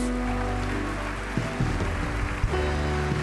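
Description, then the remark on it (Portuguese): An audience applauds loudly for the Lord Jesus, a dense and steady wash of clapping lasting several seconds, with sustained musical tones underneath and no voices. “Se você crê nisso, aplauda bem forte o Senhor Jesus.”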